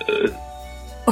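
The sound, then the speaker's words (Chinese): A person voices a big, drawn-out imitation burp, a low steady rumbling tone lasting under a second, set between short spoken exclamations. It is the mountain troll Tim's burp in a reading of the picture book 'The Little Troll and the Little Girl'. “当然了，现在小咪姆也变得爱干净了，而山妖小提姆呢，有的时候也会像其他的山妖一样打一个大大的嗝儿。”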